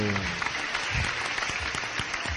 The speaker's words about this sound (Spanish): Ah, un aplauso para